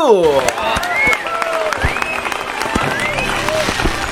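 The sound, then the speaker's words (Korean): Several people clap in a quick, steady burst lasting a few seconds, lively, with excited voices calling and whooping over the applause for the release of a new mini album. “박수!”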